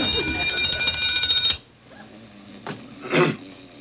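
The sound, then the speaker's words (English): A loud alarm clock bell, switched on and held right by a sleeping man's ear in a back room at four o'clock in the morning, rings continuously for about a second and a half, then cuts off abruptly, leaving quiet background noise and a couple of soft rustles. “turns it on to try to wake Barney up by holding it right down his ear”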